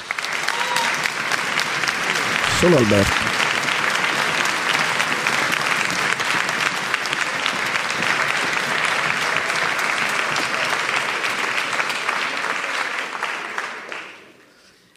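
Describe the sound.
Sustained audience applause fills the whole stretch, a dense, steady wash of many hands clapping, with a brief voice calling out near the start before the clapping fades away at the end.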